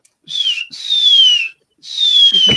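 A person whistles three clear, sliding notes, each gliding downward in pitch, with short pauses between them; the whistling is fairly loud, with no talking.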